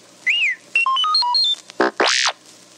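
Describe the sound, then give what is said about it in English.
R2-D2, the Star Wars robot droid, makes a beeping chirp as a page-turn cue in a Star Wars read-along story: a swooping whistle, a quick run of stepped electronic beeps, then two buzzy sweeping squawks, loud with no talking. “You will know it is time to turn the page when you hear R2D2 beep, like this.”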